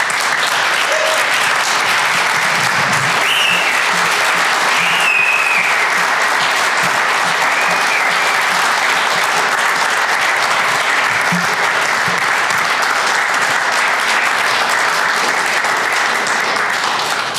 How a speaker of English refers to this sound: Can I get you all to stand and clap for this group of men that have pulled this church together? Because they deserve an absolute round of applause as far as I'm concerned.